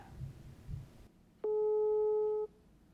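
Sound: telephone ringing tone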